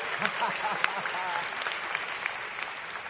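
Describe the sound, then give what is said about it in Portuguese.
A church audience claps in praise of God during a sermon, a dense wash of many hands with a few sharper individual claps standing out, sustained at an even level for the full few seconds. “Aplaudam Ele.”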